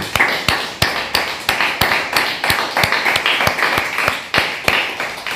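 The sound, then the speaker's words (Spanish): A steady round of applause welcoming day 38 of the count of the Omer: sharp, bright claps repeating quickly and fairly evenly over a noisy wash of hand sounds, loud throughout the five seconds with no voices. “Así que vamos a darle un fuerte aplauso.”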